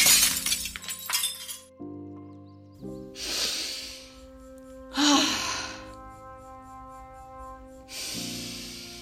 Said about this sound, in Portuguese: Você continua cantando para a lua e pouco a pouco o vidro da vitrine começa a trincar. Você continua deixando a sua voz sair e o vidro trinca mais e mais até que se estraçalha todo no chão.